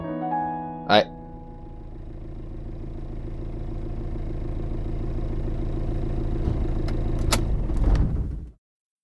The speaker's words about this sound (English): As if on cue, several pairs of light beams came over the rim of the crater the ship had made, accompanied by a low grumble of engines. The bodies of the vehicles were hard to make out, but they were stout and large.